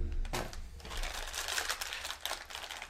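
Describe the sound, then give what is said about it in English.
Loud crunching as Sweet Tarts hard candies are chewed right into the microphone, a dense run of sharp cracks and grinding clicks with no one speaking. “Because then you're just, just gonna chew in the microphone.”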